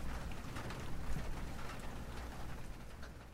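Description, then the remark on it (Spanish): Rain falls again, coming and going, with a constant soft hiss and scattered tiny patters, fairly quiet and even throughout, with no voices. “Vuelve a llover otra vez.”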